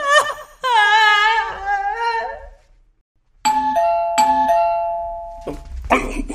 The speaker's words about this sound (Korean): 이거, 아, 이거 뭐야. 저 초인종 살아있는 거였나?